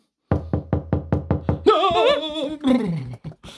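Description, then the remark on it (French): A rapid series of eight firm knocks on a door, evenly spaced, followed by a wavering, drawn-out vocal sound. “Quelqu'un frappe à la porte.”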